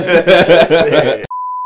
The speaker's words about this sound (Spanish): ¿lo vas a vipear? Sí, lo